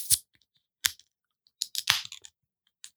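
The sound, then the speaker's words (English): A beverage can being cracked open: a few sharp metallic clicks and snaps, then a quick cluster of pops with a brief fizzy hiss, and one last faint click, with no talking. “Bonus crack.”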